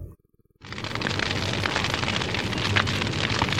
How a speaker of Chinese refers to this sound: 大火真是太可怕了，噼里啪啦的怒吼着，它不停的追赶动物，把大家逼得无路可走。